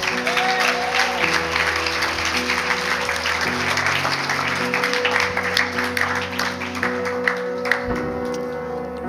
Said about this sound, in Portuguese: E quem crê, dá uma salva de palmas a Jesus.